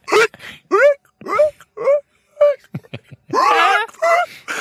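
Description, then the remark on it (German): A voice imitates a woman's echoing, seal-like hiccups in a wine cellar: about six short, honking yelps in a steady rhythm, fairly loud, followed by a longer, denser burst of vocalizing. “Und dann hat die Schluck aufgekriegt.”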